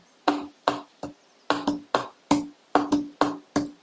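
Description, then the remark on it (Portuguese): A hand taps out a rhythmic pattern on a wooden table, about a dozen sharp knocks in uneven groupings, each with a short woody ring and no voices. “mas a partir do momento que eu pego um negócio aqui, uma mesa, uma madeira, e eu tiro um som.”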